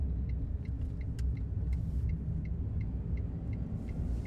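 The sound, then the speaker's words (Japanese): Steady low road rumble from inside a car driving on a public holiday along a road with hardly any traffic, heading toward the suburbs past many rice fields, a constant dense hum with no voices, plus faint regular high ticks repeating about every half second. “まあ、今日は祝日だし、まあ、祝日だしっつったってね平日だってね今走ってるとこなんか全然”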